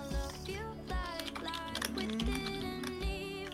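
Rapid, uneven clicks of someone typing on a computer keyboard sound close by, layered over steady background music with sustained tones.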